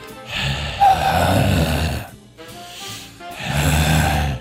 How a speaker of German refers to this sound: wenn man die Zunge oben an den Gaumen legt und dann quasi so eine leichte Rotzausatmung macht. Also mit ein bisschen einatmen und dann die Zunge und wieder. Ah. Und auch immer mit Geräusch einfach, ja. weil das noch ein bisschen mehr Druck gibt.